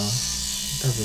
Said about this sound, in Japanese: たまに眉毛を整えますうんよいしょなんかペンみたいなカミソリかな多分